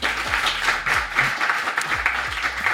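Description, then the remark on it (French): A studio audience on a French TV show applauds columnist Claire Lejeune, a dense wash of many hands clapping at an even, moderately loud level for a few seconds, with no voices over it. “Et on est avec Claire Lejeune qu'on applaudit également.”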